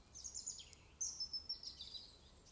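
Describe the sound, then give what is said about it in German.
Soft birdsong outdoors in nature, with high thin chirps and trills repeating in quick phrases over a quiet, faintly hissing natural background. No one speaks. “Eine Verbundenheit mit Natur spüren kannst dem Vogelgesang begleitet, direkt aus der Natur zu dir ankommt.”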